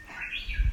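Birds chirping outdoors in the evening at Shirahama near Tateyama, Japan, including a talkative crow, a faint, continuous twittering over a low rumble of wind and rustling trees, with no voices present.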